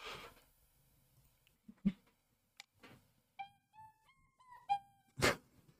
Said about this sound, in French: Ils font chanter un chien, ils mettent un micro devant la bouche d'un chien et c'est le chien qui chante.